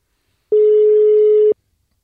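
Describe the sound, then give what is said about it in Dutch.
A single steady ringback tone sounds for about one second, a clear electronic hum with faint harmonics, starting and stopping abruptly amid silence. “Ik hoop dat hij opneemt.”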